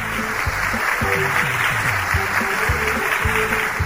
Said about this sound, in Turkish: Doğru cevap mı sevgili çocuklar? Evet. O zaman alkış hak ediyor.